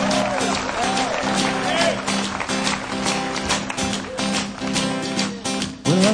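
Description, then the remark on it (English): A crowd claps steadily for a four-member singing group about to sing, a dense stream of hand claps mixed with cheering and voices, loud throughout, rising slightly near the end. “How about a big hand for them?”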